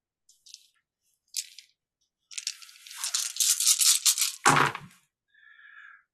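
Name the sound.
dice rolling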